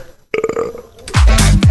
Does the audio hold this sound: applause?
no